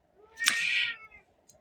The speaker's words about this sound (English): The cat's really upset.